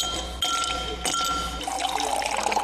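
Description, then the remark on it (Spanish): Rum pours into a glass in a steady splashing trickle with a faint ringing tone, starting and stopping a couple of times over a few seconds, with no one talking. “Aplique un trago de ron.”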